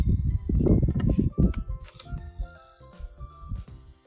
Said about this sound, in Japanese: 今ね、BGM もなく、えーと、セミの声と波の音を BGM にラジオ放送させていただいてるんですけど